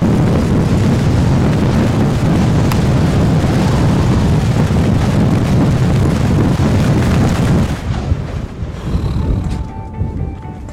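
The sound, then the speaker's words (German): Strong wind roars and buffets continuously for about eight seconds, a loud, dense low rumble with gusty fluctuations, then drops to a weaker, unsteady gusting near the end. No one speaks. “Es gibt unterschiedliche Sachen, die schwierig sind in diesem Gelände. Eins davon ist der Wind.”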